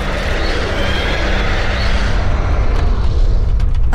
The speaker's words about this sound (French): Lorsqu'elle est brûlante de chez brûlante, il l'enfonce dans la pupille de Polyphème. Le monstre pousse un hurlement terrible qui fait trembler les montagnes jusqu'au bout de la terre.